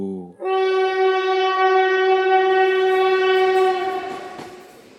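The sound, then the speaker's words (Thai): A train horn sounds one long, steady, loud blast lasting several seconds near Talat Phlu railway station, heard from a bridge over Khlong Bangkok Yai at night under a full moon, then tapers off as faint rail rumble lingers. No one speaks. “ก่อนจะเดินขึ้นมายืนชมพระจันทร์กันอยู่บนสะพานข้ามคลองบางกอกใหญ่ ที่อยู่ถัดไปไม่ไกลจากสถานีรถไฟตลาดพลู”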